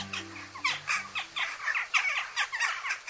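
A busy flock of jackdaws, European birds like compact light and dark gray crows, gives short, sharp "chak" notes in quick irregular succession, overlapping, with a faint low hum beneath at the start.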